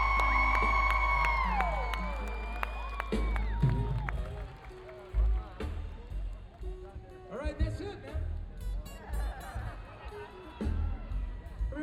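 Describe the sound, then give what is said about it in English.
A concert crowd at a Mardi Gras show cheers and whoops loudly for about twelve seconds, with scattered high shouts rising over a dense roar and some sustained musical tones early on. “Everybody cheers this Mardi Gras!”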